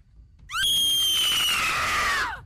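A woman's loud, high-pitched scream holds for about two seconds, wavering slightly, then dips in pitch and stops abruptly. No one speaks.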